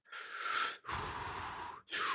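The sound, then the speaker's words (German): Heavy, slow breathing of a large creature: three long, airy breaths in a row separated by brief pauses, fairly loud, with no talking. “Freunde, das hört sich nach was Großem an, was gerade atmet.”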